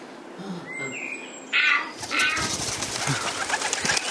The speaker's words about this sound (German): Da, prima. Der Täuberich ist draußen. Und die Tauben haben sich ganz weit nach oben auf den Baum verzogen.